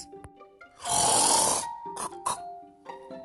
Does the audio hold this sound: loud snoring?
yes